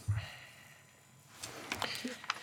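A faint, short breath over a thin phone line, with a soft puff at the start and breathy rustling later, all very quiet against a low hiss.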